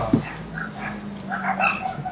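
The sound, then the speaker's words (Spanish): Several dogs bark and yelp over one another in a steady, excited clamor of short high-pitched cries, moderately loud, with a low droning hum underneath. “Oh viejo, los perros de nuevo están gritando.”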